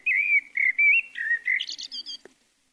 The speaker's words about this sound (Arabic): وبقرب النافذة رأت عصفورا صغيرا يصدح صداحا عذبا